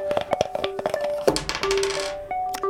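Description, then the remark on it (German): Dice clatter and rattle across a hard tabletop in a quick burst of sharp clicks, followed by a longer rolling scrape that settles into a few faint ticks. “Würfeln ist mir nicht teuer genug.”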